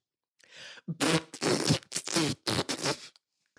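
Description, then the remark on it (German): A loud, sputtering fart sound, a voice imitating it with the lips, breaking into about five raspy bursts over roughly two seconds after a faint breathy lead-in; made into a camera while lifting a leg, just outside a restaurant. “Wie beendet man äh, ein Bit perfekt, ja, man frutzt einmal in die Kamera.”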